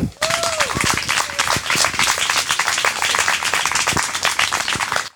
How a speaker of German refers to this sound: Bühne frei und Applaus